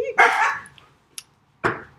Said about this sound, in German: Wenn du Hallo sagst, bellt der Hund.